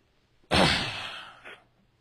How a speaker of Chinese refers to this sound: 请原谅，我也对着话筒清嗓子了，因为我实在憋不住了。